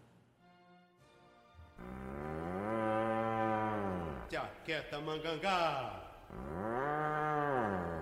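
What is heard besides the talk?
ox mooing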